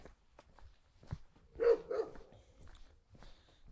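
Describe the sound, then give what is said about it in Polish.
A mongrel dog behind a fence barks twice in quick succession in warm weather, two sharp, fairly loud woofs close together, with faint background noise and no one speaking. “Będzie się darł przeokrutnie, niestety.”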